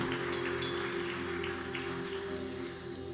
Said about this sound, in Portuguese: Alguém pode aplaudir bem forte esse, a essa palavra?